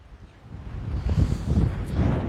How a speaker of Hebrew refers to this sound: איזה רוח, יאללה, נכון? אני בסרט של רוחות. נכון.